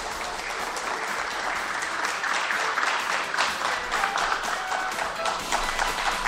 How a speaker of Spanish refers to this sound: Pero está llegando …, así que lo recibimos con un fuerte aplauso. Es el invitado de esta noche.